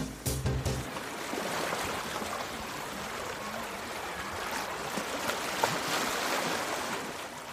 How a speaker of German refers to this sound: Oh, herrlich. Hm, klingt nach Sommer, nach Urlaub, nach Meer.